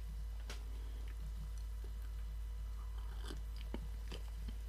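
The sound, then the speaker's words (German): Someone takes a small sip of hot tea, with a few quiet mouth clicks and swallowing sounds spaced out over a steady low hum. No one speaks. “Nachdem wir jetzt die Geräusche und den herrlichen Duft genossen haben, nehme ich erstmal einen kleinen Schluck.”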